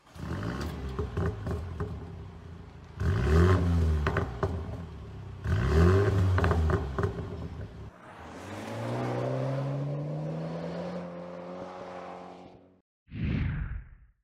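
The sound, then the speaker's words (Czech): The turbocharged two-liter four-cylinder engine of an M235i car, rated at 306 horsepower and 450 Nm and paired with an 8-speed automatic, revs hard in several loud bursts, then winds up in one long rising pull before a brief final blip, with no talking. “bude zatím motorizace s označením M235i, která nabídne dvolitrový přeplňovaný čtyřválec o výkonu 306 koní točivém momentu 450 Nm a ve spojení s 8-stupňovým automatem dokáže vypálit na stovku za 4,9 sekundy.”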